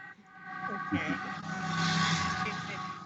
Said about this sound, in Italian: Facciamo passare l'ambulanza